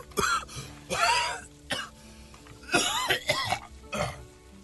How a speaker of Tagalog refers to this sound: rinig na rinig ko yung ubo mo hanggang sa opisina ko ah.